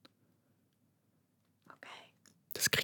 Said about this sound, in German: Wir könnten auch mal flüstern. Okay. Das wäre doch mal total schön, dass wir jetzt einfach mal so ins Flüstern übergehen.